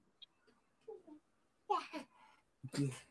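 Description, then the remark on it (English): A baby babbles: a few soft, scattered coos at first, then two louder, drawn-out babbling bursts with a brief pause between them. “yes, baby. No, baby.”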